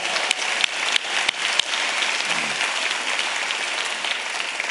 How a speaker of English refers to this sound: Give the Lord another round of applause, would you?